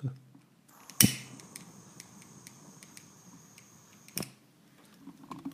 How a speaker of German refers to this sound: Philipp darf das Feuerzeug bedienen